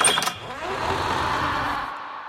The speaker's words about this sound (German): Und bei uns knarrt jetzt wieder eine Tür. Adventskalender.